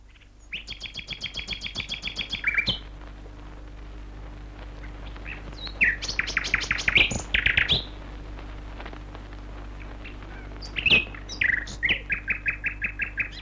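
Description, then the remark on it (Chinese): A white-rumped shama sings in bursts of rapid, high whistled notes, a run of quick repeated phrases followed by richer, varied warbles, with a steady low hum underneath and no talking. “再查一查他的资料，你会发现这只白腰雀居可能并不是野生的，因为寇和家里面自己有一个动物园，里面有七十多种动物。”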